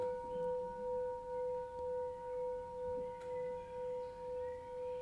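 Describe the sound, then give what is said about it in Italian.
A bell rings out with a steady, sustained hum of two clear pitched tones, its volume swelling and fading in a slow, regular pulse throughout, with no voices. “il suono di questa campana.”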